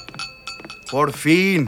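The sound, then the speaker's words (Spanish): Glasses clink together in a toast, a few bright taps with a faint lingering ring, followed by a person speaking briefly. “Eso, salud por eso.”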